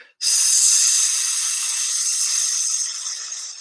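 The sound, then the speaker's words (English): A person's long, steady hissing exhale during a breathing exercise begins abruptly and holds for over three seconds, airy and bright like a balloon slowly deflating, tapering slightly at the end. Fairly loud, with no talking. “This time I'm going to get you to make a sound. So as you breathe in, deep breath. As you breathe out,”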